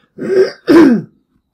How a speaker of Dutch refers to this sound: Wat betreft de brief, en ik ga alles even kuchen.